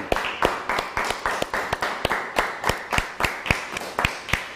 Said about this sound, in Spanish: Fuerte aplauso.